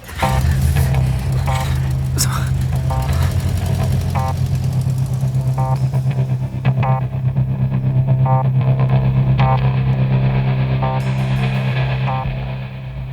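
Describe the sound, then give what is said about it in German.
A car driven at breakneck speed up a narrow mountain road with the accelerator pressed to the floor, its engine roaring loudly and steadily throughout, a deep droning rumble with a rhythmic pulsing on top, easing off slightly near the end; a voice briefly speaks a word. “Bob trat das Gaspedal durch und fuhr mit halsbrecherischer Geschwindigkeit die schmale Bergstraße hoch.”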